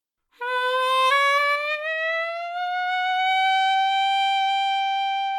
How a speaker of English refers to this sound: When two notes sound dissonant, their frequencies don't have those simple relationships like two to one. So, a famous example is an interval that musicians call a tritone, and it sounds like this.